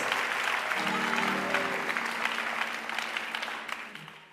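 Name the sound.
audience applauding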